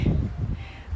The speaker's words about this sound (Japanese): 今茨城県のつくば市すごい強風が吹いておりますそれなのに私は今庭に出てですね外で 録音をしています風の音聞こえますかね聞こえますかね